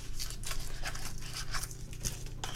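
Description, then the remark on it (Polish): A device being pulled from its cardboard box: irregular bursts of scraping, rustling and crinkling packaging over a steady low hum, with no one speaking. “Ja wyciągnę to urządzenie z pudełka.”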